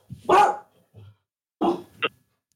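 Two sharp dog barks from upstairs, a second apart, each with a short trailing yip, sounding muffled.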